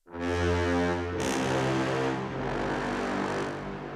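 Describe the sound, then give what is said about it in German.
A gritty, distorted low brass tone from the 'Long Nasty' patch of the Albion 3 Iceni sample library, played solo, blares out alone. It sustains loudly with a harsh buzzing edge and audible lip overblow, with a brief bright flare partway through before the dirty drone carries on. “Äh, das klingt so, wenn ich das mal solo abspiele, das klingt halt sehr dreckig halt.”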